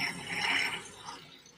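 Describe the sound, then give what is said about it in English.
A big construction drill grinds and rattles steadily with a harsh, buzzing mechanical texture, swelling in the middle before easing off slightly toward the end. No one speaks. “You guys hear that big drill behind me?”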